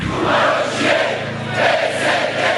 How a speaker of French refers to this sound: La colère contre la corruption et ce type de gouvernance s'exprime régulièrement à Bucarest. Manifestations bien souvent accompagnées de drapeaux européens.